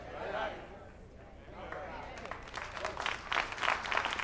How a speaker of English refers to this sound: Ooh, these raggedy first of the year claps.